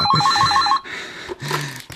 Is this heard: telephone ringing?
yes